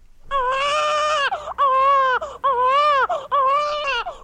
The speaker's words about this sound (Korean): 어, 아기 울음소리가 나지 않았느냐? 어찌되었는지 궁금해서 견딜 수가 없구나. 주상 전하. 그래. 왕비가 왕비가 순산을 하였느냐? 예, 주상 전하. 왕비 마마께서 건강한 공주님을 순산하셨사옵니다.